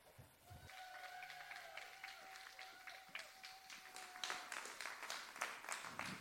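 An audience applauds with dense, steady clapping for about six seconds, growing louder and more energetic toward the end before breaking off abruptly, with a sustained high tone running through the first part.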